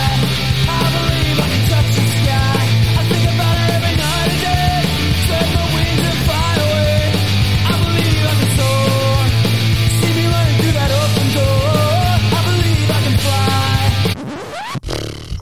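A loud, driving punk rock cover plays with distorted guitars, pounding drums and a shouted lead vocal, running continuously for about fourteen seconds before cutting off abruptly.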